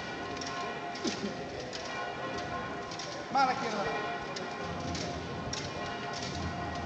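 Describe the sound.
Soft, steady rustling and faint metallic tapping from the swaying fringes (bambalinas) of a procession float canopy, heard from beside the float, with a man calling out short directions in Spanish such as left forward and right back.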